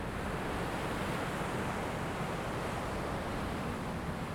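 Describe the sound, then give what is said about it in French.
Waves wash steadily against a beach in a continuous, even hiss of water. The sound stays fairly soft and unbroken throughout, with no voices. “Je repense au clapotis des vagues contre la plage”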